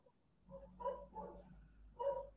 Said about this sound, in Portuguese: mas essa cachorrada aí na tua casa, velho?